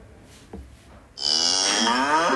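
cow mooing

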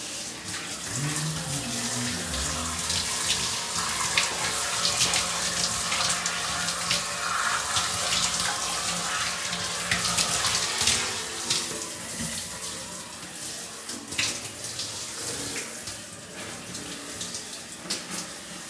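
shower water running

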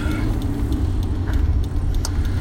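car interior

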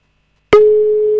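telephone call tone

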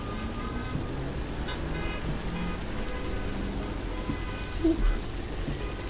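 rain falling

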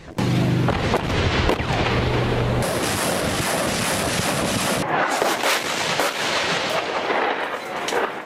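artillery fire

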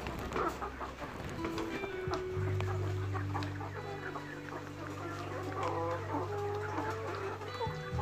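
laying hens clucking

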